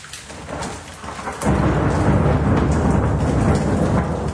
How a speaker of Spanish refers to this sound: Sin embargo, mientras los monjes estaban lejos, una feroz tormenta se desató en la región.